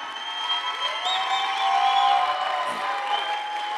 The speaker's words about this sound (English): And, ladies and gentlemen, I want to take a moment and start off by recognizing some very amazing individuals, the City First Leadership College students. Come on, give a round of applause as they come up on stage.